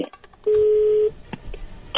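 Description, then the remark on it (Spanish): A telephone number being dialed: one long, steady mid-pitched keypad tone, followed by a few brief, fainter blips, with no one speaking. “Bueno, le va a llamar el lobo, que no haga ruido.”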